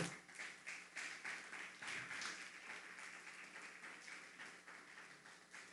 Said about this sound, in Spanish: Un fuerte aplauso.